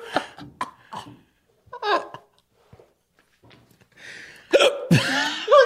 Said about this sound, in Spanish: Ay, no, perdónenme, fans legendarios, con este hipo tremendo que me dio.